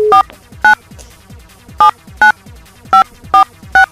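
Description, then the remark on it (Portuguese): A phone number is dialed to call a girl again: seven short, bright touch-tone beeps at an uneven pace, with brief pauses between some keys and quiet background noise and no talking. “Vamos ligar de novo para a menina,”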